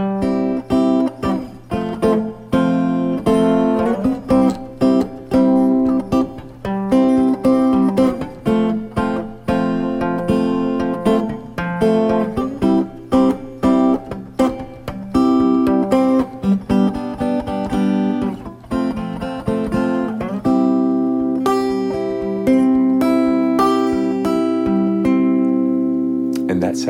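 Sustained triad chords of twelve-bar blues changes are played in a steady progression, each block ringing for a beat or two before changing, with a low drone beneath. The instrumental passage is fairly loud and has no talking over it.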